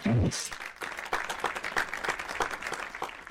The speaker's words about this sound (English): Please join me in the round of applause for Grant and Bianca.